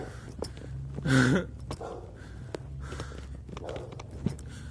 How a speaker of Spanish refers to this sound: Qué pinche perro me está ladrando. Nada que son culeros porque luego así muerden.